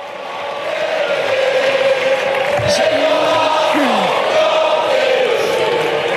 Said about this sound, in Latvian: Tās izraisīja sašutumu opozīcijas deputātos, kuri Bornes uzstāšanās laikā skaļi ūjināja un dziedāja Marseljēzu.